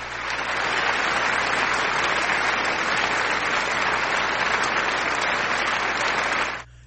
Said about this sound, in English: I have to play their applause. Here you guys go.